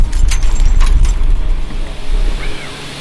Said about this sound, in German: Und wenn ihr jetzt dachtet, von außen betrachtet sind Windräder laut, dann nehme ich euch jetzt mal mit rein ins Windrad.